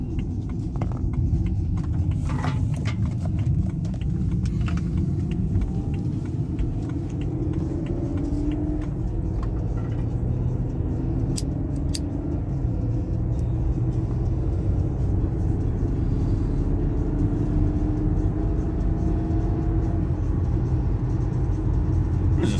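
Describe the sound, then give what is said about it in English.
Steady low rumble of car engines and road traffic in America, loud and continuous throughout, with faint whirring and occasional brief clicks over the constant drone. “Yeah, I can't sit through all that traffic.”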